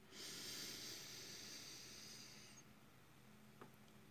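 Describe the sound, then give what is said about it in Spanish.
A slow, deep but gentle breath drawn in through the nose as part of a breathing exercise, a steady airy hiss lasting about two and a half seconds before it tapers off into near silence. “Entonces vamos profundo por la nariz, pero suave, ¿eh?”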